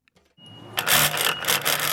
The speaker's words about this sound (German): hat den alten gerissenen Reißverschluss rausgetrennt und müht sich nun an der Nähmaschine, den neuen einzunähen.